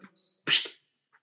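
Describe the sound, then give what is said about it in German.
A single short, high electronic beep from a stove hob as a cat stands on the cooking plate, immediately followed by a sharp, noisy burst, then quiet; no one speaks. “Habt ihr das gerade piepen gehört? Ja. Es ist tatsächlich die Katze, die gerade auf der Herdplatte steht.”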